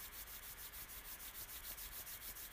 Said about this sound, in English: And begin rubbing your hands together as we begin to tune into our sense of hearing, noticing what we hear, the sounds that are near and far.